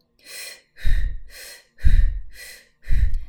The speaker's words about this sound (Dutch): mag je weer langzaam starten met in, uit, in, uit. Je laat de pauze weg. In, uit, in, uit. Alsof je een luchtbed oppompt. Heel goed, ga door.